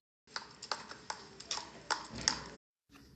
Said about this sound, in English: You could hear the noise of cars in the distance, the honk of taxis, the loud clop of horses' hooves.